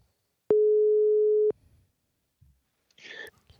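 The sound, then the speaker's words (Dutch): A single steady ringing tone of an outgoing telephone call to a scriptwriter for the NOPCO Academy, about a second long and fairly loud, followed by faint rustling and a soft, whispery voice. “We gaan hem bellen.”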